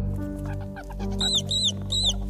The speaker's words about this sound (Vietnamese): đó là tiếng chuột kêu nghe tiếng kêu thì dường như không phải chỉ có một con